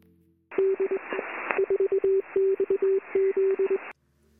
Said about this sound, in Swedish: Så tidigt som 1860 förstod erfarna telegrafioperatörer att de kunde känna igen individer på deras unika knackande på telegrafknapparna.